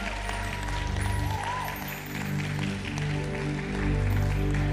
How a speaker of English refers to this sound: If you love them, clap them. Clap your hands like you love you some Jesus.